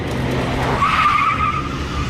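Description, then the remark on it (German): A car roars off with tires screeching as it drives away from a police officer at a highway rest area, a sustained high squeal rising over a dense engine rumble, loud, with no voices. “Der Wagen kam direkt auf mich zu und hat mich am Knie angefahren. Als er wegfuhr, habe ich geschossen und habe noch den rechten hinteren Reifen getroffen.”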